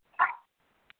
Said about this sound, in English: Sorry about my dog.